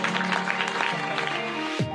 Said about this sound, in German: Können wir den Leuten einen riesengroßen Applaus geben?